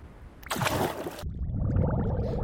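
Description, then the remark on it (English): A sudden bright whoosh as a treasure chest is opened gives way to steady watery bubbling and gurgling with small pops, moderately loud, with no voices. “I'll just open up my treasure chest and. Uh oh! Bubbles!”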